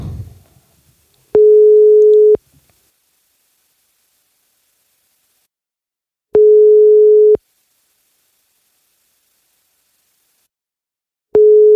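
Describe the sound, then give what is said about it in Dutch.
A telephone ringback tone sounds three times while calling a guest, each steady hum lasting about a second with long silent gaps between, clear and fairly loud, while the call goes unanswered. “Spannend hè, als ze nog niet opnemen.”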